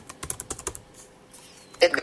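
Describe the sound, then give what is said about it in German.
Rapid keystrokes clatter on a computer keyboard as login name and password are typed in, a quick burst of crisp taps, a brief pause, then a louder flurry of key presses near the end. “So, und wieder die Daten ein.”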